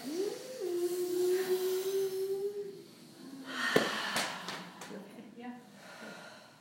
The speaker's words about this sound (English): And when you're ready, sip, sip, sip in. Make a noise like.